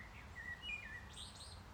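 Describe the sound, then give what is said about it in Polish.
A blackbird sings outdoors, perched in an exposed spot, its fluting, warbling phrases rising and falling over a steady low background rumble, fairly quiet, with no voices. “hiszpańskie kosy brzmią tak samo jak nasze polskie”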